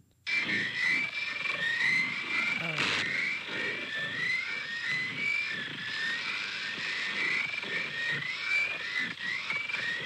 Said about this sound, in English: Sounds like a distorted feedback driven noise, though an altered voice can sometimes be heard.